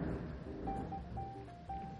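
A low, continuous rumble of thunder from a storm with lightning rolls on for about two seconds, deep and muffled, with a faint thin tone drifting over it and no voices.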